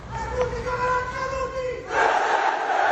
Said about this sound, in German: heben den rechten Arm in die Höhe, zeigen den Faschistenkuss, den man hier Saluto Romano nennt, und schreien laut und vernehmlich Präsente. Wahnsinn, mitten in Rom.